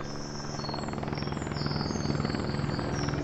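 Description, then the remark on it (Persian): An emergency helicopter thuds steadily overhead near a river, its rotor beating in a fast, even rhythm that grows slightly louder as it passes by, with no talking. “ای وای خدا به خیر کنه یعنی کی حالش انقدر بد شده که هلیکوپتر اورژانس اومده”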